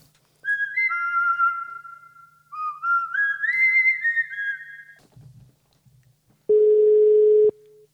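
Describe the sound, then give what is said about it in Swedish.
A telephone busy signal heard while placing a call: a loud, steady electronic tone lasting about a second near the end, preceded by a run of bright, whistle-like melodic tones with brief pauses between them. “Busy busy.”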